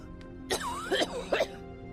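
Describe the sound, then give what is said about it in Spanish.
A woman has a harsh, violent coughing fit: three rough, raspy coughs in quick succession, with a strained voiced edge between bursts and no talking. “Mientras hablaba, Mary rompió en un violento ataque de tos.”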